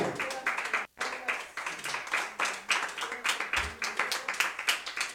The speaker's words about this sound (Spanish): Él ofrenda de palmas al Señor, hermano.